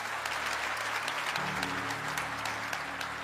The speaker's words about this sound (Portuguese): Quem pode aplaudir o nome dele aqui nesse lugar?